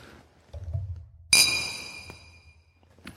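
A single bright clink as two cups of chocolate-flavored coffee tap together in a toast, ringing briefly with a high metallic shimmer that fades out. A dull rumble of handling comes just before it.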